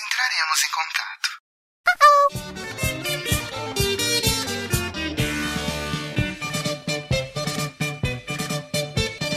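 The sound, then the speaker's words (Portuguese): Someone briefly speaks an answering machine greeting in Portuguese, then after a short pause a single quick answering machine beep sounds, clear and steady in pitch, immediately followed by loud, busy music that carries on to the end. “Então deixe a porcaria da sua mensagem logo após o bip”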